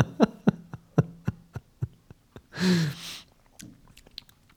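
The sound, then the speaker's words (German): Someone takes a drink of beer that had been kept on a balcony for a week: a rapid run of soft gulping clicks, then a breathy, satisfied exhale, followed by a few quieter swallows. “Ist leider nicht mehr ganz gegeben, aber es schmeckt trotzdem erfrischend.”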